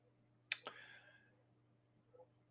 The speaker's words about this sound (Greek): Αυτό θα δοκιμάσω και σήμερα, οπότε πάω να πατήσω το μαγικό κουμπάκι